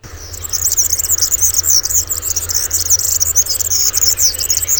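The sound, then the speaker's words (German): A European serin, a small finch, sings a continuous, rapid, high-pitched jingling song, buzzy and tinkling like jangling keys, loud, with no pauses across the whole stretch and no voices. “Im 19. Jahrhundert hat der Girlitz von Süden kommend die Alpen überwunden und dann ein Land nach dem anderen besiedelt”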